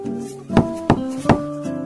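Three sharp knocks on a door, evenly spaced, sound over a steady backdrop of sustained musical tones, with no talking.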